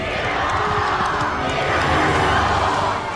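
A large crowd in the city of Reims, France, cheers and roars continuously, acclaiming the dauphin as he enters the city in July 1429, a dense wash of many voices shouting together at a steady, loud level with scattered higher cries rising above the din.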